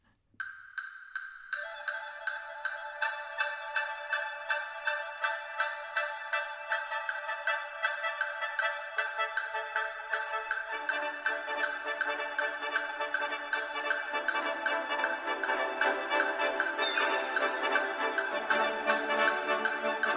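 Bright, driving orchestral music by an American composer, written for a very fast machine, with a steady rapid pulse; high repeated notes start alone, then lower instruments join in layers so it grows fuller and denser. No one speaks.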